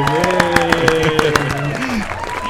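Steady, rhythmic hand clapping, around nine sharp claps at an even quick pace, with voices carrying on underneath before the clapping fades out.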